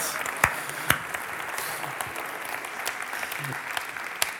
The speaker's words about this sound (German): Geben nochmal einen Applaus, schön, dass ihr mit an Bord seid.